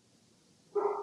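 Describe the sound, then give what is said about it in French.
A single sharp, loud bark from a household dog at home breaks near-silence right at the end. No one is talking. “Euh, non, c'est le mien, ça. C'est mon chien aujourd'hui.”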